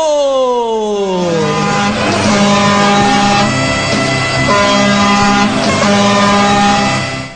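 A loud, blaring horn honks continuously for several seconds, its pitch sliding downward at first and then holding steady, with rumbling vehicle noise underneath.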